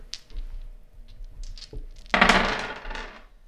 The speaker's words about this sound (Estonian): on mul siin käes kolm täringut, mille peal on erinevad pildid. ma veeretan neid täringuid, me valime sealt mingisuguse sobiva inspiratsioonisõna.